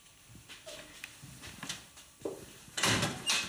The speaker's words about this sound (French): Tu ouvres la porte pour dire tu te casses, quoi.